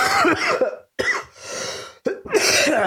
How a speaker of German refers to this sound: Verfickter Husten.